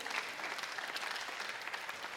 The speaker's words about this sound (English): Come on, let's give God a clap, clap offering. Amen.